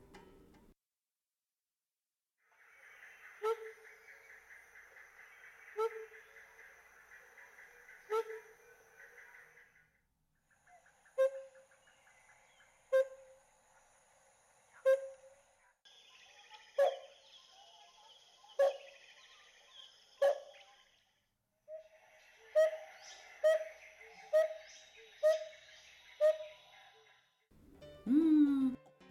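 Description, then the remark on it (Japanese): A yellow-billed barbet in Uganda sings a run of clear, hollow recorder-like notes, evenly spaced and repeated in phrases whose pitch shifts step by step, with a buzzy rattling undertone; fairly loud, no talking. “今日ご紹介するウガンダの鳥はティバシオナガゴシキドリです”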